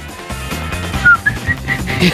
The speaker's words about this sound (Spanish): es que me voy a poner a silbar, pero seguramente que ahora no me sale.